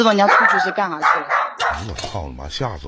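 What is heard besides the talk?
dog barking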